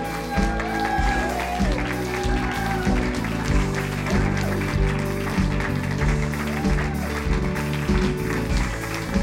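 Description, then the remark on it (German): Sustained audience applause at a church, welcoming a speaker onto the stage, a dense steady wash of clapping that stays loud throughout, with music playing underneath. “Nachher, äh, nachher wird der Applaus noch mal ungefähr zweimal so stark sein.”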